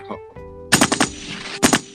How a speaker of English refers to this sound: Let me hey, let me hear them gunshots.